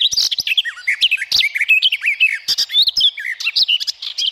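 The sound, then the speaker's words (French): A garden warbler, a bird about twice as heavy as a blue tit, sings a fast, rambling warble of bright, varied notes that runs without pause for several seconds, clear with no voices over it. “c'est une fauvette des jardins deux fois plus lourde qu'une mésange bleue et qui pond 4 à 6 œufs une à deux fois par an.”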